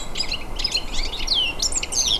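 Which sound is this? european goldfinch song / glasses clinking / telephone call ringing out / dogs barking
european goldfinch song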